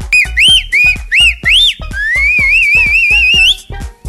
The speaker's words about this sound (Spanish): pero te van a chiflar en la calle.